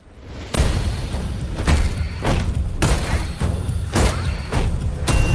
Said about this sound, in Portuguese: Batman agora tanca tiro. Porradaria.